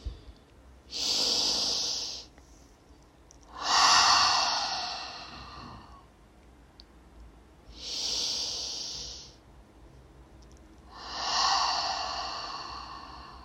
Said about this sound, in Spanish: Cogemos aire profundamente por la nariz. Abres tu boca y exhalas. Y repetimos dos veces más cada uno a su ritmo.